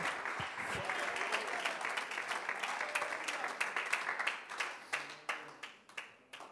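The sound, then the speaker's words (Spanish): A church audience breaks into sustained applause of thanks to the King who called them, dense overlapping claps that hold steady, then thin out into fewer, more distinct claps toward the end. “Un aplauso de agradecimiento para el rey que nos mandó a llamar y a sentar en su mesa.”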